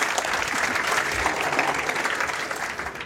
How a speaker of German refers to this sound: Und genau, dein Applaus.